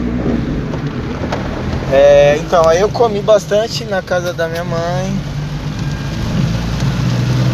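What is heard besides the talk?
heavy rain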